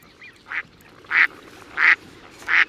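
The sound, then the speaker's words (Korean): A family of ducks passing by quacks in a short series of about four to five nasal calls, spaced roughly half a second apart and growing louder, with no talking. “네. 오리 소리예요. 네, 오리가 꽥꽥거립니다.”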